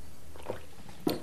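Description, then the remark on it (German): A quick sip of water, quiet: a faint wet mouth sound, then a soft gulp near the end over low background hiss, with no talking. “Ich muss einmal schnell einen Schluck Wasser nehmen.”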